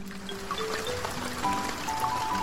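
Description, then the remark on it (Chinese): Rain falls in a steady, even hiss of water that holds at one level throughout, with a few faint sustained tones running underneath and no voices. “下雨了，雨点儿落在米娅身上”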